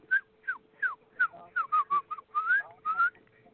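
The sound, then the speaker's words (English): A person whistles a quick series of chirpy, bird-like notes imitating the Twitter bird, about a dozen short rising and falling tweets in an uneven rhythm, with no talking over them. “Yeah, well, that was a twi- that was the Twitter bird.”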